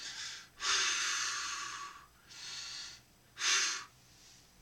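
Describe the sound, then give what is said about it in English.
Slow, deliberate breaths from a skydiving instructor on a plane demonstrating a calming breathing technique: a short inhale, then a long drawn-out exhale, followed by more paced in-and-out breaths. No talking. “And and I got surprised because all my instructors skydiving, they were like, my first time on the plane, they were like, oh, try this breathing technique.”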